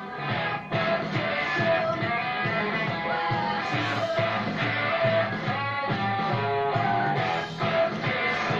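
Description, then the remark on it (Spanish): Hard-hitting drums with a dry sound and very little reverb drive a loud full-band music track, the punchy hits landing steadily and prominently throughout. “Con muy poco reverb haciendo hincapié en el golpe. Le pega fuerte.”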